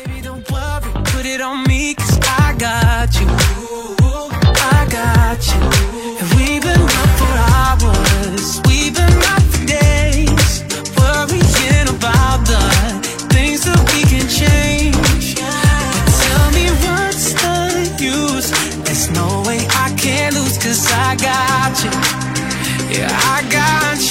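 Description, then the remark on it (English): Loud pop song intro plays with a steady beat, bright melodic layers and a full bass line; the arrangement shifts partway through, and no voices come in. “而今天节目的最后呢，送来给大家一首歌曲”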